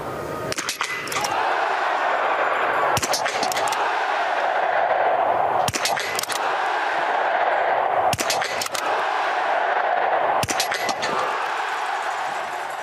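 An intro jingle for Biathlon en live: five sharp, gunshot-like cracks land at steady intervals of about two and a half seconds over a constant, loud rushing bed resembling crowd noise, with no talking.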